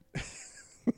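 A quick nasal snort bursts out with a breathy rush, trailing into a hissy exhale, then a short low grunt-like puff follows near the end.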